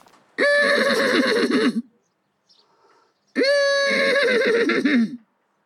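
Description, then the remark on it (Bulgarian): A man, the host, imitates a horse neighing: two loud whinny calls about a second and a half each, separated by a short pause, with nothing else around them. “Не, няма преди да говорим, дами и господа, величественият ни домакин, който отново помоли да не бъде записван, но ни позволи да ви пуснем как той прави кон.”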